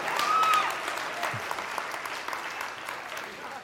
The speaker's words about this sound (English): It says this there is no judgment against anyone who believes in Him. Man, is that, yeah, right now we should probably do a little bit of a clap right there.